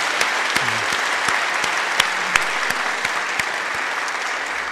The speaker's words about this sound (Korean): 이번에 오페라 소녀원 성황리에 잘 마칠 수 있도록 인도해 주신 우리 하나님의 은혜에 감사 박수를 올려드리기 원합니다.